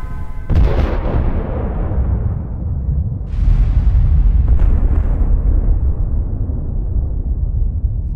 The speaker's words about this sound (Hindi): bomb से निकलती आग आसमान में दस किलोमीटर की ऊंचाई तक उठ रही थी और धमाके की गूंज 160 किलोमीटर दूर तक सुनाई दी थी इस बॉम्ब के क्रिएटर रॉबर्ट ओपनहाइमर भी ऐसा खतरनाक विस्फोट देखकर दंग रह गए थे